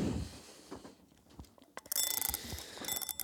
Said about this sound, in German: Und die Eieruhr wird sofort mal aufgezogen. So.